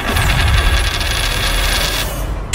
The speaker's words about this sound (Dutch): Wat zal het zijn? Kop of munt? Komt-ie!